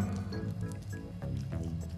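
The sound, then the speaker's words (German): Wet, squishy chewing sounds as someone eats bread with horseradish, soft smacking and mouth noises repeating steadily for a couple of seconds with no talking. “Alter, ich esse gerade ein Brot mit Meerrettich und.”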